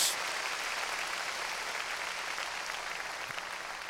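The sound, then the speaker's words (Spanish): An audience claps hands loudly for God in a dense, sustained burst of applause, a steady wash of overlapping claps that holds for several seconds with no talking over it. “Démosle, démosle palmas fuertes a Él.”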